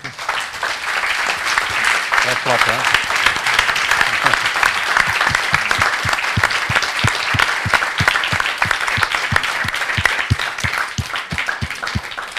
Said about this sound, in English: Um, I'd like to have a big applause for our enthusiastic panel. Okay.